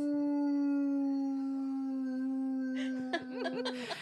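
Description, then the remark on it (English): A dog, Coke, howls along to a passing ambulance, one long, steady howl that holds its pitch for several seconds, then breaks into a few short, ragged yelps and rustling noises as it trails off. “Do y'all want to hear Coke sing to the ambulance?”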